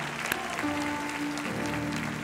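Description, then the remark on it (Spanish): An audience claps together in steady, dense applause for a couple of seconds, celebrating Christmas on 24 December 2023, with a sustained tone humming underneath and no one speaking over it. “Yo celebro también con un aplauso.”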